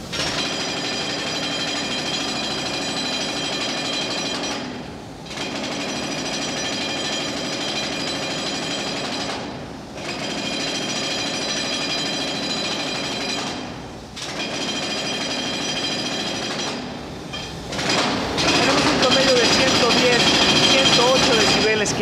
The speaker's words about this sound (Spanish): Aquí dentro de la construcción de la línea 12 del metro, vamos a utilizarlo para medir el ruido que genera el equivalente a un taladro hidráulico como el que estamos viendo en estos momentos.